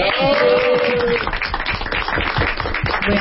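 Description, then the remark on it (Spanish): Steady applause from a group, dense and continuous for a few seconds, with voices and a brief sustained vocal tone mixed into the clapping. “Un aplauso.”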